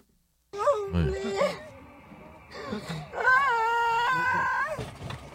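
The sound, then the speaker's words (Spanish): A Latina woman, trapped in a store after a wall fell on her and streaming live, cries and wails in long, quavering sobs with rising and falling pitch, fairly loud, a couple of broken whimpers between the sustained moans. “Es una latina que está llorando.”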